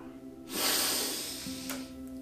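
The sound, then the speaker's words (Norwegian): A deep, breathy inhale through the nose lasting about a second, taken while rising onto the toes during a stretching exercise, fairly loud, with a faint low hum continuing underneath and no talking. “Så puster du godt inn gjennom nesa mens du går opp på tærne.”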